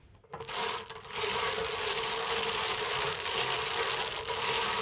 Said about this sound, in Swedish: Och det låter så härligt med träkulor.